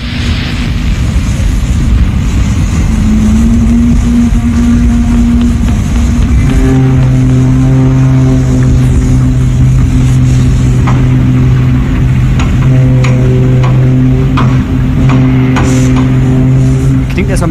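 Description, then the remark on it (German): Ambience of the Hamburg harbour, recorded by a Danish reporter, with boat engines droning in low, steady hums that shift pitch now and then, over a constant loud rush of hissy, rumbling background noise for the whole stretch. “Unter dem Reiter History gibt es Geschichten übers Radio oder halt Atmos, wie hier vom Hamburger Hafen.”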